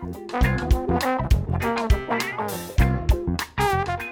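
A full, busy instrumental track with sustained bright melodic lines over regular punchy beats, playing steadily and fairly loud throughout with no voices.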